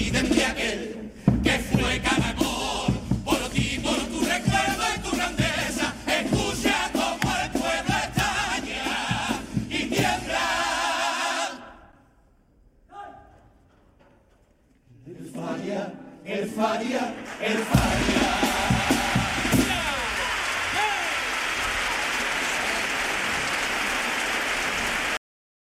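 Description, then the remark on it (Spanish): A crowd applauds in a loud, dense wash of clapping with some cheering mixed in. The clapping dips into a brief near-quiet lull midway, then swells back up and continues steadily. The applause, about 30 seconds long, follows a comparsa's paso doble. “Y lo dejamos ahí porque el pater ha dejado como 30 segundos de, aplauso, que no es para menos, El, paso doble.”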